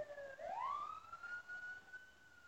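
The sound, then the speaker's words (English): An emergency vehicle siren wails, its pitch sweeping upward and then holding steady at a high tone, moderately loud over faint background traffic noise with no talking. “Oh man, I thought that was an emergency vehicle just using their siren to get through a red light.”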